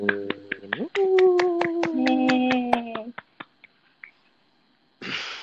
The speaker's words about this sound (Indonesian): Tepuk tangan.